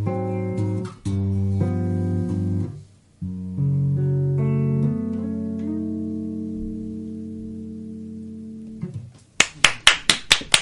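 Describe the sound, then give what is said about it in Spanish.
Sustained musical tones ring out and fade, then a brief, small round of applause follows at the end: about half a dozen sharp, evenly spaced claps, fairly loud, with no talking. “Y tan, po- tan chiquitos los aplausos.”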